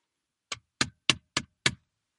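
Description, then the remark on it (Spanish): A judge's gavel knocks five times in a quick, even series, each strike a sharp wooden rap with a short decay, with nothing else sounding around them. “De los jueces con sus pelucas blancas y con sus rulos y con sus atuendos negros y con sus martillos.”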